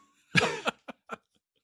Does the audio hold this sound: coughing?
yes